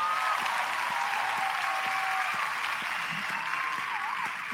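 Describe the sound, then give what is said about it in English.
A steady applause sound effect, a dense wash of clapping that holds at an even level for several seconds before easing slightly at the end, with no voices over it. “I'll give you some applause there.”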